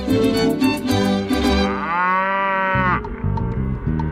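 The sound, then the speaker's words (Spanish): A cow moos loudly, a drawn-out, droning call lasting a few seconds, with busy rhythmic background sounds before and after it and no one speaking. “Una investigación reciente ha demostrado que las vacas que tienen un nombre y que son llamadas por su nombre dan más leche.”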